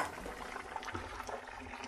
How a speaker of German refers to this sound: Ich tue jetzt selber noch einen Schuss Essig dran.